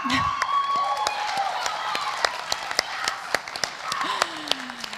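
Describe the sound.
An audience of students breaks into scattered applause, many sharp irregular claps that thin out over a few seconds, with faint voices and cheering murmurs mixed underneath.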